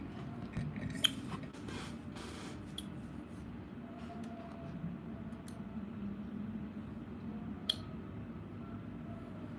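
Scissors snip through long hair in a few sharp, crisp cuts as it is trimmed, scattered unevenly over a steady low background hum with no talking.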